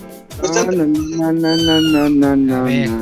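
A cat lets out one long, drawn-out meow, loud, its pitch wavering and sliding slightly downward across about three seconds, with no other sounds around it.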